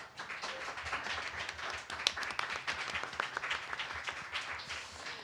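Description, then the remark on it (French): A crowd at La Cale, a zero-waste pub on Saint-Hubert, applauds steadily, dense overlapping claps forming a continuous bright rustle with a few sharper individual claps and faint whoops mixed in throughout. “Main d'applaudissements, comment?”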